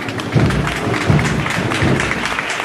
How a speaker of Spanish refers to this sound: y cada vez que lo hace recibe el aplauso de quienes lo entienden como un gesto que ha tenido con ellos el Señor